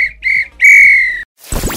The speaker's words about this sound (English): If this were a real bit of extra time, this is when the ref blew the whistle because it's finished.